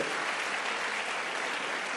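A crowd applauds steadily, a dense, even wash of many hands clapping at once with no break and no voices standing out.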